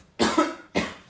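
Two harsh, breathy coughs in quick succession, the first longer and rougher, the second a shorter bark, both fairly loud with no talking over them.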